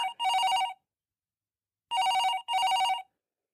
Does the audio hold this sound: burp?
no